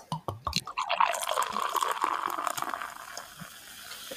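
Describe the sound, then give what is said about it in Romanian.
A few sharp clicks as a What the Fruit 2 beer is opened, then a steady pour with foamy fizzing that gradually softens over several seconds, with no voices. “Ziceam că eu să-mi desfac o bereta What the Fruit 2 cât timp tu vorbești.”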